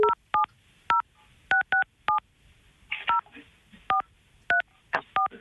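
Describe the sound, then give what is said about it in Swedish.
A rapid series of touch-tone beeps as a phone number is dialed from a withheld number, about a dozen short dual-pitched tones in uneven bursts, clear, with faint room noise between presses. “Ska vi ringa Hasse nu då, så får du fråga honom?”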